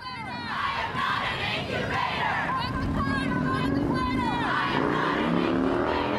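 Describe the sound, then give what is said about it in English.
A large crowd chants and shouts in unison at an emergency abortion-rights rally on the evening of May 3rd, in front of the Philip Burton Federal Building at 450 Golden Gate Avenue, San Francisco. Voices rise and fall in loud, continuous waves with a dense babble throughout. “was the site of one of many emergency rallies for abortion rights across the Bay Area and the country”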